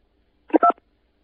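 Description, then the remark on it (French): A quick electronic keypad beep, like a phone button being pressed, sounds once in a short clipped burst, clear, with silence on either side, during a France Télécom automated phone menu. “Pour un décrassage du combiné téléphonique, appuyez sur la touche 2.”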